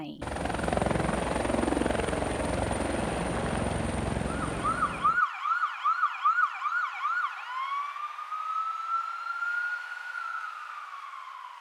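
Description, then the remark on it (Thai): An emergency medical team's air ambulance helicopter, on duty transporting emergency patients from remote, hard-to-reach areas to large hospitals: its rotors thump loudly and steadily for several seconds, then cut off abruptly to a wailing emergency siren that rises and falls before settling into a long, sustained tone. “เสียงที่ทุกท่านได้ยินนะคะ เป็นเสียงของทีมแพทย์ฉุกเฉินทางอากาศซึ่งกำลังปฏิบัติหน้าที่ในการลำเลียงผู้ป่วยฉุกเฉินในพื้นที่ห่างไกล เข้าถึงยากนะคะ ส่งต่อเข้ารักษาในโรงพยาบาลใหญ่ๆค่ะ”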